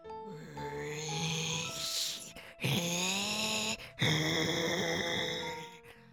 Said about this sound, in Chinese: 这双头狗啊，两颗头同时都看到了海克力斯，便开始发出低沉恐怖的叫声。